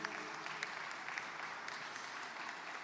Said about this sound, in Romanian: Aplauze pentru domnul ministru.